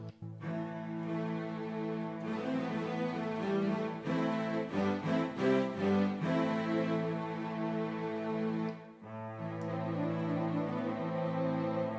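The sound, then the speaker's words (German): A synthesizer string ensemble plays sustained, lush chords with a few brief rhythmic stabs in the middle, then a short pause before another held chord swells back in. Steady and fairly loud, with no voices. “Noch so ein Sinti-Streicher.”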